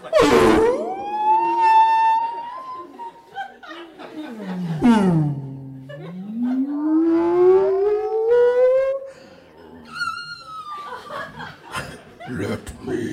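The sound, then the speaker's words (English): A voice imitates a whale song with long, wavering hums that swoop low, then slowly rise again, loud, followed by giggling and a few spoken words. “So I probably should have just farted, but I just go, and then it goes, it is your whale song, like.”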